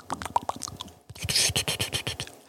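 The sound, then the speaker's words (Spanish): Crisp ASMR mouth clicks and scratchy rustling right up against a microphone, arriving in quick irregular bursts with a brief pause partway through, then a denser run of sharp crackles. “Haces una SMR y que te responda, ¿se oye la SMR?”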